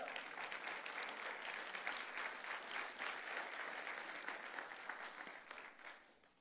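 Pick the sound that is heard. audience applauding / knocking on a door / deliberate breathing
audience applauding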